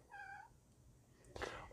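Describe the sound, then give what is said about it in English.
A single short meow from a cat, apparently the cat Lulu, clear and steady-pitched, followed a moment later by a brief burst of rustling noise against a quiet background. “That sounds like Lulu, though”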